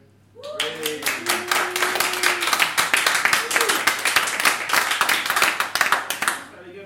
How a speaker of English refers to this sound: Let's have an applause if you support that policy. One, two, three.